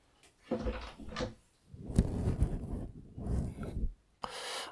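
Handling noises: a couple of scraping, rubbing bursts followed by a longer stretch of creaking and shuffling as a door is worked open and pushed to let a whining cat into a recording room, ending with a sharp knock.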